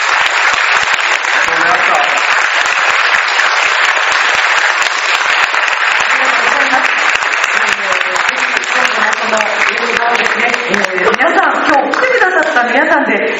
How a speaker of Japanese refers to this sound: 本日上映会皆さんお越しくださいましてありがとうございます主演の皆さんそして監督に大きな拍手をお願いいたします